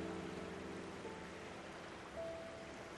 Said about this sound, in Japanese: 岩戸川のせせらぎだけが遠く聞こえた。